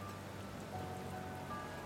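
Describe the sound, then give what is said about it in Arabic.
Heavy storm rain pours steadily onto a city pavement, a dense, even hiss of countless drops with no pauses, heard at a moderate, fairly quiet level with no voices. “وهو ماشي بخطوات سريعة على الرصيف سيول الأمطار خلت الناس تجري بسرعة عشان تركب عربياتها أو عشان تحتمي في مداخل المباني وتحت مظلات المحلات”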